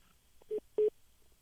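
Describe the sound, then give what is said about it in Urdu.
Two short electronic beeps from a phone line as a caller's cell-phone call drops, the second slightly louder, a steady mid-pitched tone, heard alone over faint background hiss. “آپ کی کال ڈراپ ہوگی غالباً آپ سیل فون سے کر رہے تھے”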